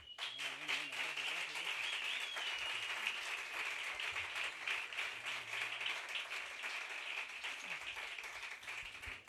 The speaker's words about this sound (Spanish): Hoy recibimos a la Cinecicleta. Hoy recibimos con el mejor de los aplausos al Camerlo López y a Isabel Segura.